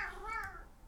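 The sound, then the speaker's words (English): A single drawn-out meow from a male pet cat, rising and then falling in pitch, heard clearly over a quiet background hum, with no one talking. “oh, that was my cat.”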